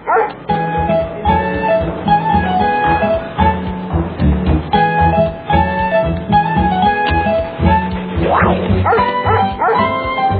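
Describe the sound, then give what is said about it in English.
A dog, Sparky, the fire dog of a fire station that sniffs out fires, barks and yips repeatedly, loud and energetic, with a couple of higher, whining yelps toward the end. “Sparky works here. He's a fire dog.”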